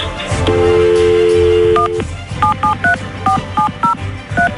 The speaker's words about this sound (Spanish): Vamos a marcarle al hermano Carlos.